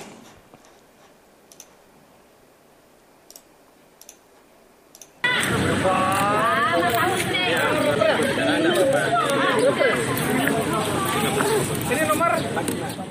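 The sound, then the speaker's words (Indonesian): A few seconds of near-quiet with sparse soft clicks, then a sudden burst of loud, dense crowd chatter from residents queueing at Sperindak in Pamekasan Regency to buy subsidized bulk cooking oil sold by the regency government; many overlapping voices continue steadily to the end. “Warga mengantri untuk bisa membeli minyak goreng curah bersubsidi yang digelar pemerintah Kabupaten Pamekasan melalui Dinas Perindustrian dan Perdagangan di Sperindak setempat.”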